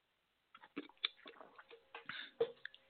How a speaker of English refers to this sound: Let me go ahead and take a sip of some liquid magic real quick while I let y'all say what y'all going to say.